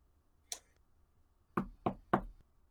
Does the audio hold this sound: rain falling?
no